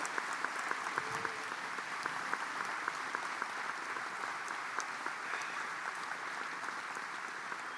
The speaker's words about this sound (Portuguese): Quem pode dar um aplauso ao Senhor Jesus nessa manhã? Bem forte, bem forte. Aplauda ao Senhor nessa manhã.